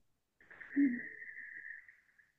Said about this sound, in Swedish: Man andas in med näsan. Aha. Och sen andas du ut som att du immar en glasruta fast med stängda läppar.